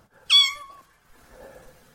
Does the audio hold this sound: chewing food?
no